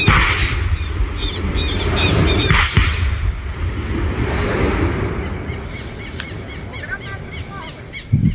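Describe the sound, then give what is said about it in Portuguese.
A dense chorus of many small birds chirping and twittering at once, loud and continuous, with repeated high calls layered over a busy, noisy background. “Os passarinhos, todas.”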